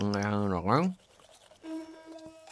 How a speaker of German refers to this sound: Mmh, das ist ja eine tolle hm, Zahnbürste, die hm, summt gleich so. eine elektrische. So eine elektrische.